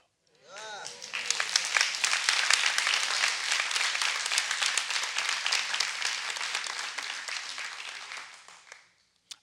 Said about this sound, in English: I think I'm going to stop there because y'all clap.